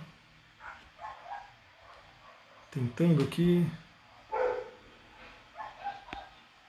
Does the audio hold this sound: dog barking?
yes